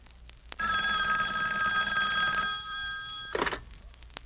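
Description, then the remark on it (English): The hotline telephone used to reach Batman and Robin about an emergency in Gotham City rings loud in one continuous metallic trill lasting about three seconds, then cuts off and a short clunk follows, as if a handset is lifted. No one speaks. “Now, Hand me the hotline phone.”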